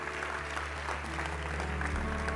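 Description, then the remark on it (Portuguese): An audience at a church service applauds the Lord steadily, a dense wash of many hands clapping at an even level throughout, with a low hum underneath and no speech over it. “Aplauda ao Senhor.”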